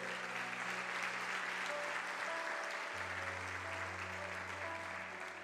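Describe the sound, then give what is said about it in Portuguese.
An audience claps steadily in a round of applause to God, a dense, sustained wash of applause with a low organ-like tone humming underneath and no speech over it. “Em nome do Senhor Jesus, se você concorda, diga amém e dê uma salva de palmas a Deus.”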